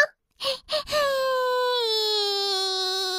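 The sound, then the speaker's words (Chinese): A voice performs the crying of a small dark rain cloud in a children's story: two or three quick sobbing catches, then one long, steady wailing whimper that slowly sinks in pitch, fairly loud and with no other sound around it. “它正在哒吧哒的流着眼泪呢， 难怪在下雨呢。”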